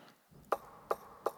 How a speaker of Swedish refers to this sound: Se, jag står vid dörren och knackar. Om någon hör min röst och öppnar dörren ska jag gå in till honom och hålla måltid med honom.